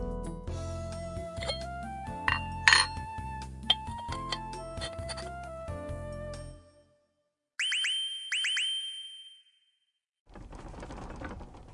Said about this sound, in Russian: 揺れてる地震落ち着いてください大丈夫ですよほらもう収まった